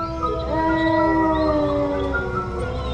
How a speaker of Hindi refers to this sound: हमारे घर के बाहर कम से कम छः सात कुत्ते पता नहीं कहाँ से आ गए और ज़ोर ज़ोर से रोने लगे और वो भी ऐसा रोना था कि कोई भी सुने तो डर जाए